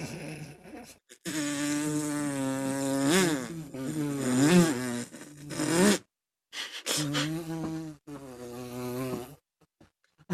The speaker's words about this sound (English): I laughed at a fly buzzing around for an hour because I thought it sounded like a mini fart, and that's what was propelling him through the air.